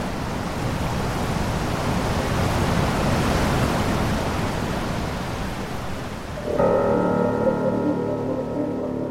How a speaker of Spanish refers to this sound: observar la confluencia entre los ríos Báquer y Nef, un lugar impresionante en el que la potencia de los caudales quita el aliento.